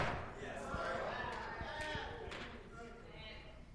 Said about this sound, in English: That's just me knocking at the door. You want something more sadder than me knocking? Wait till I stop.